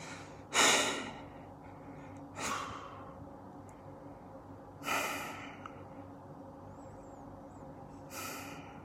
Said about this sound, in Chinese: 所以我在这里要挑战一下，我在这里先喘上几秒钟的气啊，什么都没有，没有任何信息量，只有喘气，就强调一下所谓的剪辑的气口。